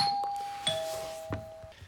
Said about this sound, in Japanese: 今ピンポンが来てねあの裏ボアのねパーカーのねキャンプに着ていくやつが届きました。